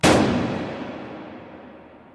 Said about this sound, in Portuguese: O som ensurdecedor do tiro trovejou nos ouvidos de John, enquanto ele observava a bala estilhaçando a parte de trás do crânio de Archibald.